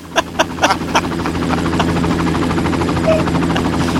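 A helicopter thunders, its rotor blades chopping in a fast, regular rhythm over a steady engine roar. Loud and continuous, with no voices.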